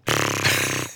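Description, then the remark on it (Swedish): A voice imitates how TV presenter Filip Hammar sounds when he pees, with one steady, buzzing blow of the lips, a wet, raspy drone lasting about a second before stopping abruptly. “Det låter så här när han kissar.”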